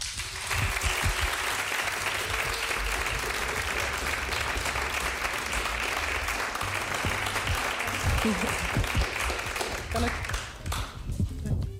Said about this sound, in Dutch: Een hartelijk applaus voor mevrouw Beryl Biekman.